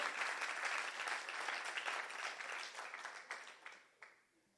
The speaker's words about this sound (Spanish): Alguien le da un aplauso al Señor y le dice amén.